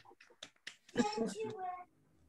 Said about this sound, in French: on peut allumer nos micros pour les applaudir. Hein. Là, je crois que ça vaut le coup. Merci. Bravo. Bravo.